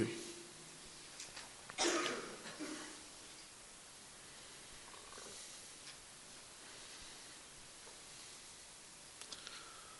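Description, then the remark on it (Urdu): A short burst of coughing from an audience member rises from otherwise quiet surroundings, muffled, followed by low background murmur and a couple of faint clicks near the end. “کیوں ختم ہوگی کھانسی آپ کی شوقیہ کیوں کھانستے ہو جس کو کھانسی ہے پیچھے جا کے بیٹھو باقی عادتاً نہ کھانسو”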